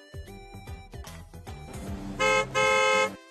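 A car driven by the children's story character Big Brother Elephant (大象哥哥) approaches with engine rumble and rhythmic low-pitched thumps, then gives two loud, sustained honks of its horn, the second one longer.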